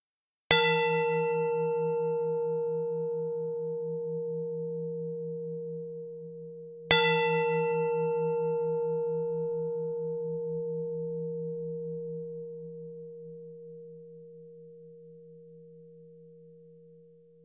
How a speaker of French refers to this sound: Maintenant, vous allez entendre le son d'un bol tibétain. Je vous invite à observer, ressentir ce que vous ressentez quand vous entendez ce son.